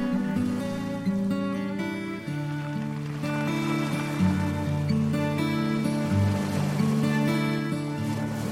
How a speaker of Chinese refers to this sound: 在今天的节目中，主题是海，所以一直我们听到的这个背景乐都有海浪的声音。